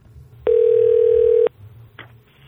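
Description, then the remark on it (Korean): A telephone ringback tone as a radio show on Ddanzi Radio places a call to a student's parent: one steady, mid-pitched electronic tone lasting about a second, loud over a low background murmur, followed by a brief faint click. “전화 연결 한번 해볼게요.”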